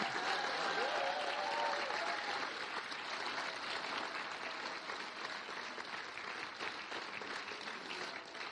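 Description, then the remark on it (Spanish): A church audience at a birthday celebration applauds themselves, the church and the pastors, a dense wash of many hands clapping at an even level that slowly eases over several seconds, with faint voices and a brief cheer mixed in. “¿Por qué no le da un aplauso a usted mismo, a la iglesia, a los pastores, ¡Feliz cumpleaños!”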